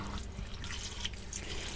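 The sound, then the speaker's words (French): Water runs steadily from a tap into a sink, splashing and trickling over 500 g of ripe cherries being rinsed, with small irregular drips and clatters. Fairly quiet, no voices. “Les cerises sont lavées.”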